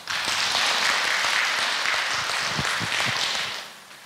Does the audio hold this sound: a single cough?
no